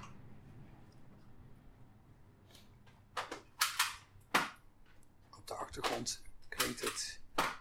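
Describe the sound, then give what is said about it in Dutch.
A price labeling gun clicks repeatedly in sharp, bright snaps as CDs are priced at the record shop Velvet in Amsterdam: first a few spaced clicks, then a quicker irregular run, over a low background murmur. “zoetgevoiste geluid van een prijstang.”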